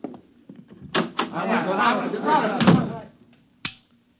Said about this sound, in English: Close the door on your way out.